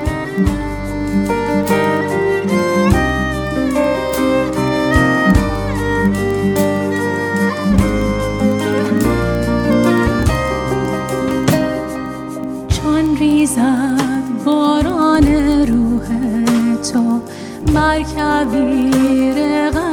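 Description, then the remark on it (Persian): A hymn plays steadily, sustained melodic lines gliding over a deep, pulsing bass, full and loud from start to finish with no talking over it. “برنامه امروز خودمون رو با شنیدن یک سرود بسیار زیبا شروع میکنیم”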